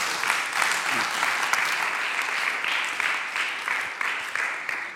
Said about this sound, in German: Geben wir noch mal einen Applaus.